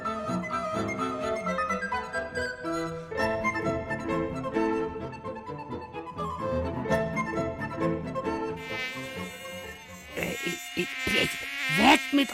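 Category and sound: insect, mosquitoes buzzing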